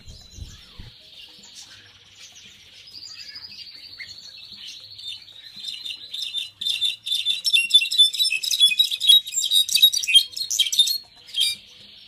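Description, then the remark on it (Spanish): A goldfinch sings alone: a thin high buzzy trill at first, then a rapid, lively stream of twittering chirps and warbles that grows louder and busier toward the end. “El sonido del jilguero, del jilguero.”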